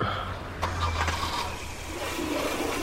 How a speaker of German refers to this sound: versucht, das Auto nochmal zum Laufen zu bringen. Aber das geht nicht.